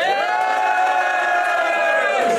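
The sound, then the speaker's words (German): A loud crowd roars and shouts after a battle in a sustained, dense wall of cheering that holds steady for a couple of seconds, energetic. “Und äh, ja, man, danke für das Battle und mach nochmal Lärm, Alter.”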